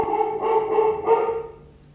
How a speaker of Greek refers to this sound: Ορίστε, μιλάω κι εγώ φορτισμένα, πέφτουν και πυροτεχνήματα, γαυγίζει και ο Φρέντι από μέσα, χαμό γίνεται.